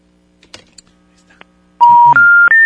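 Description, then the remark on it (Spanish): A few soft clicks, then a loud run of three steady telephone tones, each held briefly and stepping higher in pitch, with muffled voices faint underneath, on a call to a phone number that does not exist. “Uh, ¿Qué pasó con ese teléfono? No jala. Dice que ese teléfono no existe.”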